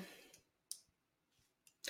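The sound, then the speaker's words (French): A pen clicks several times as someone fiddles with it, with short, sharp snaps spaced irregularly and quiet gaps between them, ending in a louder burst of noise. “Je joue beaucoup avec mon stylo, j'espère que sur le podcast, ça vous allez me tuer.”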